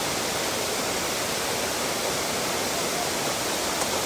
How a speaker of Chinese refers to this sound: 或许你在听的时候也听到这个山泉的芬多精跟负离子哦，不是或许哦，一定有哦。